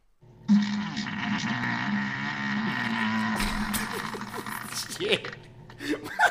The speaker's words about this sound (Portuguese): Esse é os amigos do peido.